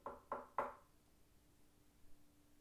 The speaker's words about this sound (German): ging auf das Haus zu und klopfte an die Tür.